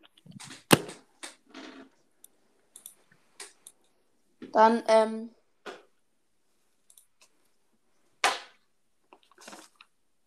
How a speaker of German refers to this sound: Was klickt da im Hintergrund? Äh, ich. Was spiel spielst du was? Am PC oder so? Ja, ich spiele auf dem Laptop. Und was denn? Irgendein Online-Spiel.